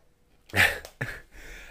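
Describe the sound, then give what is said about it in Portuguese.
Two quick splashes of water, a sharp burst followed by a shorter one, then a soft continuing rush of water, with no one speaking. “vamos ouvir a água.”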